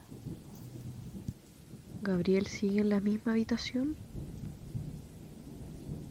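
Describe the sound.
Steady, cold late-winter rain hisses outside a house under a low, rumbling background, continuing throughout while a voice briefly speaks a short question in the middle.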